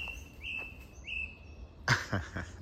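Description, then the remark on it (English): Early in the morning, around 7:30, a bird outdoors gives two thin, high whistling notes, then a quick burst of sharper chirps. The calls are fairly faint over quiet background ambience, with no talking. “Wait, can you hear that bird?”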